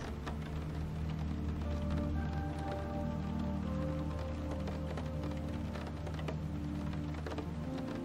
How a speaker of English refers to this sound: As you imagine the raindrops falling on the exterior of your sleeping place, you are drawn down more heavily.